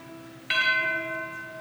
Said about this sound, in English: And suddenly he writes, Then rang the bells more loud and deep.